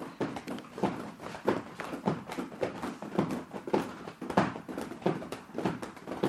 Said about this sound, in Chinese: 您听，大家听一下啊，这是我们拍打式的声音。